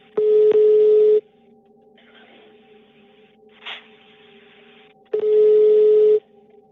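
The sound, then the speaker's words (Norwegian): A telephone rings twice, each loud electronic burst lasting about a second with a long quiet gap between them, with no one speaking. “Og da ringer jo da telefonen.”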